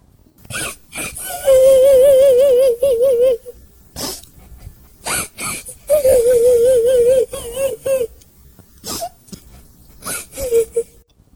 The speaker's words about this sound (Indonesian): Ia kembali mendengar suara yang bikin merinding. Suara itu adalah suara dari anak kecil yang menangis seperti menangis kesakitan.